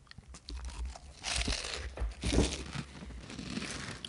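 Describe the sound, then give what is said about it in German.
Crunching of a handful of vegan peanut flips being chewed, a steady run of dry, crackly bites with louder bursts in the middle, no talking. “Und äh, ich nehme flipsgemäß einfach gerade mal ein Hampfle ins Maul.”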